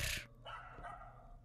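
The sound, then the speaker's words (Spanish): A dog barks a few times in quick succession, sharp, with no talking over it. “Este, ladrar también es parte.”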